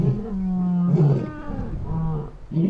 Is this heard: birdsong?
no